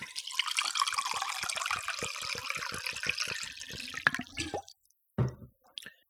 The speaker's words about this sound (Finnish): Mulla on tässä vesikannu pöydän ääressä ja pitääpä kaata itselleni lasillinen raikasta vettä.